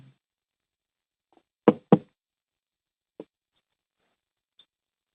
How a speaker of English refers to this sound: Somebody did a knock. Yes. I, I, I, I just sat my coffee cup down. I'm sorry.